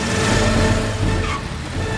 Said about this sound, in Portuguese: Nisso, o Faraday aperta o acelerador.